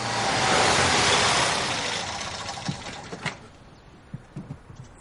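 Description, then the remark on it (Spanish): A Fiat 500's engine whirs loudly and then winds down as the car stops in front of a house by day, followed by a few faint clicks and light knocks as it settles into quiet. “De día, un Fiat 500 se detiene ante la casa.”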